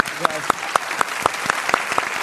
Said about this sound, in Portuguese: Pode aplaudir.